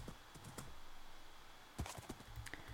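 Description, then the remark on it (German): Soft, irregular clip-clop of a saddled video game horse's hooves as it is ridden, a few scattered clops early on, then a quicker cluster near the end, faint and with no one talking. “Ach so, ich kann jetzt auf dem reiten.”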